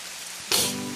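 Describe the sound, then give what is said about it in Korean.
A steady hiss of falling rain suddenly swells into a louder, denser downpour halfway through as a sudden rain shower breaks out on the way home from school, with a low rumbling hum settling in beneath it. No one speaks. “갑자기 소나기가 쏟아지기 시작했죠.”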